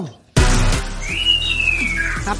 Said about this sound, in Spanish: Sí, Cassandra. La pájara casandra está gritando.